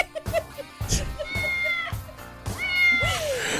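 A cat meows repeatedly in drawn-out, wavering cries, loud, with several overlapping calls over a few seconds and no talking.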